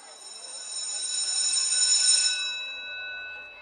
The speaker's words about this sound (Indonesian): Eh, udah bel masuk, pada duduk sana.